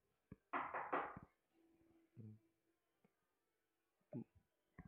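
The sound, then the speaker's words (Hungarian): Knocking on a table, fairly loud: a quick cluster of several raps, then a few scattered, duller single knocks spaced out over the following seconds. “Lent iszunk, hol kopognak? Az asztalon.”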